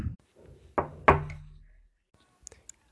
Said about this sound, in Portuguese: João bate na porta.